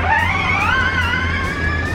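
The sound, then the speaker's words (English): An Audi off-road rally car with an electric engine drives past on Dakar Rally Stage 8, Al Duwadimi to Wadi Ad Dawasir, its high electric-motor whine climbing steadily in pitch over a constant low rumble of wheels and terrain, with no voices. “There is a really a pleasure to drive the car with this electric engine, so this is really a positive point.”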